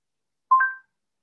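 A Google smart speaker's eight-minute timer alarm sounds as one short electronic chime, two clear tones stepping up in pitch and then fading quickly, with no voices.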